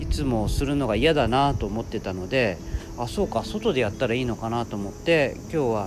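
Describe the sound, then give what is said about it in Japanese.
Cicadas drone steadily outdoors, heard from a factory's second-floor terrace in strong sunshine, a continuous high-pitched buzz that runs beneath a person talking without pause the whole time. “日差しガンガンの中で、えやっておりますセミの声も多分聞こえるんじゃないかなと思います”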